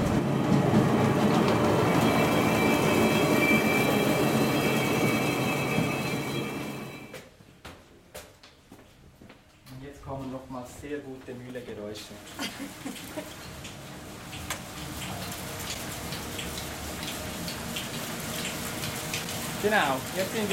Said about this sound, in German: Und im Hintergrund hört man auch immer die, die Mühle, wie sie, wie sie rattert und wie sie das Getreide vermalt.